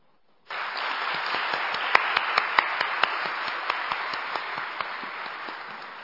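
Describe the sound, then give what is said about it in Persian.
A crowd bursts into sustained applause, a dense wash of clapping that starts abruptly and holds steady, with a few sharper individual claps standing out, then slowly eases near the end. “بله حقیقتا تشویق داره”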